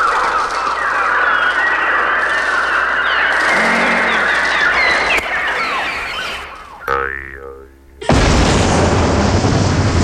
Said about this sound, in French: et alors elle pense au son de l'explosion et de la déchirure, et de la destruction, et au souffle, celui du bruit de l'air qui s'affole, et elle pense aux oiseaux menaçant le ciel